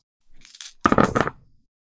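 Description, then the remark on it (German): A soft rattle of dice being shaken, followed by a loud clatter as nine dice tumble and knock together across a hard surface before settling quickly. “Und die nächsten neun Würfel.”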